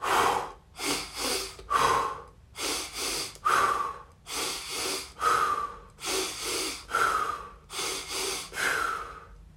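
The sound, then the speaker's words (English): Slow breathing in a steady repeating pattern: two quick sniffing inhales through the nose followed by one longer breathy exhale through the mouth, cycling about five times, clear with no talking. “So it's going to be a count of two inhales, one exhale. The inhale is going to come from the nose, the exhale is going to go through the mouth.”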